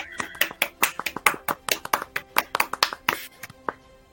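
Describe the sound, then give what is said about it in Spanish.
Applause of sharp, distinct claps, roughly five per second, brisk and slightly uneven, loud and crisp, with a faint murmur of voices underneath. “aplausan nuevamente, aplausan, aplausan.”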